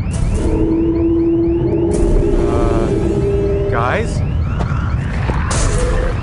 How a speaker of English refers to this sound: How can you hear anything over that alarm?